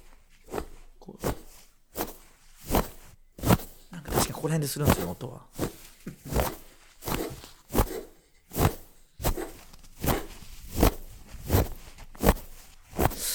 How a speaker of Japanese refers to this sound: その小麦片栗粉をもむ音以外にもってことですよねちょっとじゃあもう一回聞いてみますえどういうこともむ以外に別の音が入ってるってことですよね